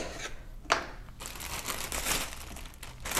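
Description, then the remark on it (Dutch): A plastic bag with a press seal rustles and crinkles continuously, with sharper crackling bursts near the start and at the end; no one speaks. “Dit is sowieso een druksluiting.”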